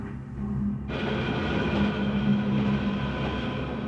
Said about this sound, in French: Départ à la nuit noire, course jusqu'à la station, trajet aveugle et chaotique au sein d'une foule serrée et moite, plongée dans le métro tiède, interminable couloir de correspondance, portillon automatique, entassement dans les wagons surchargés